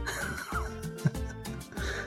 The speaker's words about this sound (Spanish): me estoy muriendo por la tos.